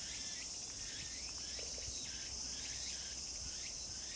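A dense, steady drone of cicadas buzzing outdoors on a summer day, recorded with an Apple Watch on August 11 while catching cicadas with a four-year-old boy, loud and continuous throughout, with faint rising chirps woven into the background and no voices.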